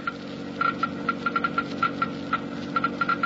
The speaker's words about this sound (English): First, Let's listen to the Geiger counter slowly click off the low wear rate of new RPM.